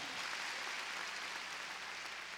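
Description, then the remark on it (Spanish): An audience at a Christian worship service claps for the Lord together in a dense, steady wash of hand claps that holds at an even level throughout, with no voices on top. “A ver, démosle palmas fuertes a nuestro Señor.”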